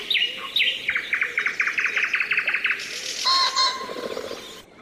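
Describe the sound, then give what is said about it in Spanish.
Tits chirping at dawn: a quick, even run of about ten bright, high notes, then a denser, overlapping burst of twittering calls, with no one speaking. “Urracas y cornejas se hicieron más parleras, Los paros chirriaban con más alegría, y los faisanes, bajando de sus nidos, se ponían a alisarse las plumas, soltando sus cacareos guturales y metálicos.”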